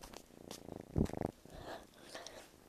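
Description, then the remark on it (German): A kitten purrs softly, a low rapid rumble pulsing in quick beats, loudest for a moment near the middle, with faint breathy noise around it. “Hört man es? Es ist eine Katze. Unser kleine, kleine Babykotz.”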